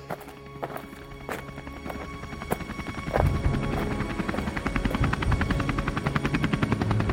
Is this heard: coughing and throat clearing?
no